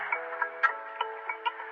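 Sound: telephone ringing tone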